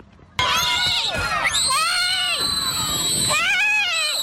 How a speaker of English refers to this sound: You can hear the terrified screams of the elementary school students as the bus driver drives away.